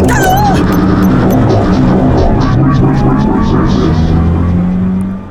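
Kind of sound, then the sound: vehicle, car driving off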